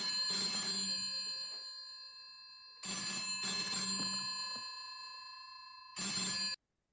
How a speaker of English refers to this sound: But as luck would have it, this phone rings. And so then she goes along pretending she's dusting as Bond re enters the room because the phone's ringing.